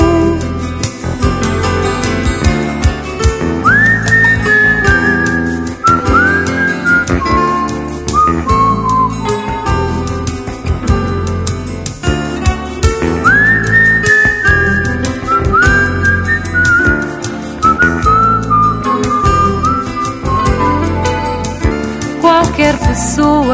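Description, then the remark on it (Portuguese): A person whistles a melody with sliding, gliding notes over a full instrumental backing, the whistle rising clearly above the music in a couple of recurring phrases. “pode assobiar.”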